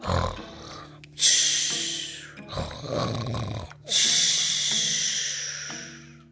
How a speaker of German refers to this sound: Und sie sang und sang, bis der Riese fest eingeschlafen war und zu schnarchen anhob, dass das ganze Haus erzitterte.